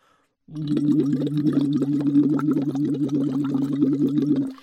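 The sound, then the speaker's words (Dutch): Rapid, even bubbling from blowing through a straw into water in a small bottle, shown as a demonstration, with a steady low hum voiced underneath. It is fairly loud, running for about four seconds before stopping. “in dat rietje moet je gaan bubbelen”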